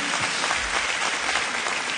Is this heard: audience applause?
yes